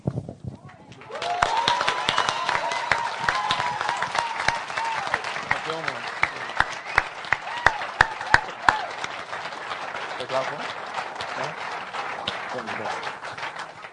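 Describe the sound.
An audience breaks into dense, steady applause after a brief quiet moment, with a few sharp individual claps standing out and faint voices mixed in as it carries on.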